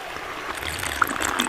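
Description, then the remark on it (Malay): River water flows steadily in a continuous wash, with a few small splashy bubbles and drips popping out near the end. No one speaks. “Sedapnya aku tengok air sungai ni Macam memanggil-manggil pula”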